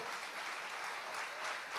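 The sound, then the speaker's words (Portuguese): A church audience applauds the Lord loudly and steadily, a dense wash of many hands clapping at once without pause, with no voices standing out. “Meu irmão, aplauda bem forte ao Senhor.”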